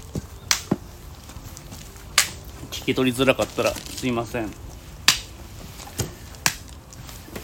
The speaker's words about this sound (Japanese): 今ね、あのー、里芋のばらし作業やってたんですけど